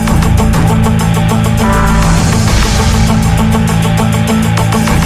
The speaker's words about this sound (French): ça fait comme si Roger était un motard. Il est en train de craquer le moteur.